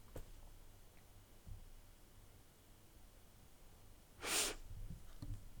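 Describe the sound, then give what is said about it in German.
A single sharp sneeze bursts out about two-thirds of the way through, loud and breathy, surrounded by quiet background noise and a few faint rustles. “Gesundheit.”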